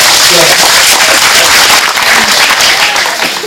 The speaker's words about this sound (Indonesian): Kita kasih tepuk tangan